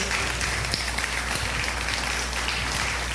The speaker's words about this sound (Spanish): ¿Le puede dar un aplauso al Rey de Reyes?